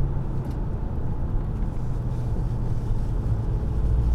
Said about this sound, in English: Sorry, I got a lot of traffic I have to pay attention to right now.